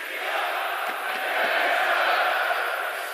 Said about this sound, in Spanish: son aficionados finlandeses, gritan Christiansen, Christian, perdón, y los daneses responden Eriksen. Sonidos bonitos, lo escuchamos.